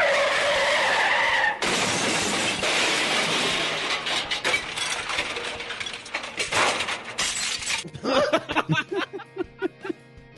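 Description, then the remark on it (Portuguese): A truck's tires screech in a long, loud skid, followed by a harsh crash and crunching impact, then scattered clattering debris that settles in uneven bursts. “É o caminhão, vou ter que botar o caminhão aqui.”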